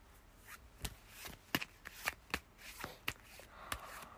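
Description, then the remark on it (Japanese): A deck of 100 cards being shuffled: a run of sharp, crisp riffling snaps and slaps at an irregular rhythm, bright and papery, with no one speaking. “じゃ、ちょっとシャッフルして、100枚をね。”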